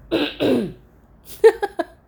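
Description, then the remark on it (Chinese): Two rough, breathy coughs followed by a short run of throat clearing, several quick harsh bursts that fade out. No one talks over it. “然后说录音录到咳嗽就咳啊”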